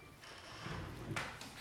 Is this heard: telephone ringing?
no